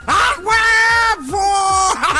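A man lets out loud, excited shouts, three drawn-out wordless yells in quick succession with rising and falling pitch, close and forceful, with no other sounds around them.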